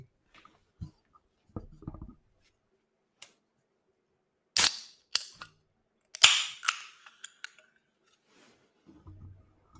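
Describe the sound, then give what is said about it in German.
Someone opens a cola and orange soft drink: a few faint handling clicks, then sharp cracks followed by short hissing bursts of escaping carbonation, with no talking. “Jetzt mache ich die mal ganz kurz auf, kleinen Augenblick.”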